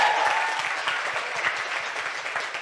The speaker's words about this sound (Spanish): Se me hizo un aplauso más fuerte.